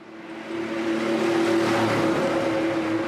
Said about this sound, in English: stands on a dark Budapest street waiting for an electric bus red bus arrives. He gets on, and it rattles along about five stops on its way to the end of the route, a train station.